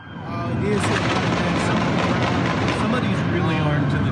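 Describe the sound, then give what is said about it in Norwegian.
Rapid gunshots crack repeatedly, sharp bursts piling over one another amid a loud, dense wash of noise, with people's voices audible underneath throughout, in a video on Twitter showing a high-rise building; eyewitnesses say at least 50 shots were fired. “En annen video på Twitter viser et høyhus, og vi kan høre mennesker i bakgrunnen og mye skyting.”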